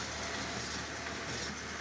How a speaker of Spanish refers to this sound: Sí, creo que es un tractor.